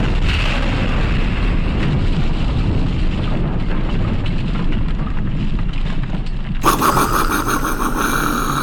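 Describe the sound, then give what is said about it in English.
A loud, sustained explosion sound effect with a deep rumbling roar that fills the whole clip, then a sharper crackling burst near the end adds bright hiss on top of the rumble. “Every once in a while, we check in with my daughter in a segment called I Love This Explosion So Much.”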